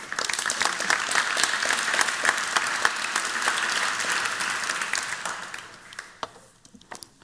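An audience claps steadily in a dense, crackling burst that holds strong for about five seconds, then thins out into scattered final claps and fades.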